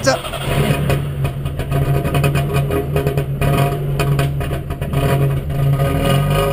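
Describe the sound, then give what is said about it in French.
An old car with a four-speed gearbox and no power steering idles with a loud, steady low rumble and a rough, rattling pulse that continues throughout, the car vibrating a little. “Euh, allez, on écoute le bruit de la bête.”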